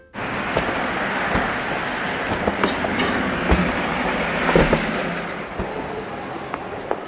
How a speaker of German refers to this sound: Das Flugzeug startet und rast immer schneller auf dem Pazifik zu.